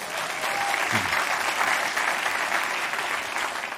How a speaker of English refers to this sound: Round of applause for our two volunteers.